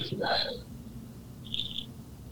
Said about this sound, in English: It, it is a it is a cat indeed.